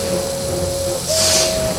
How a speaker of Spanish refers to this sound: A continuación se transformó en una gran serpiente y se retorció sobre sí mismo, lanzando temibles silbidos.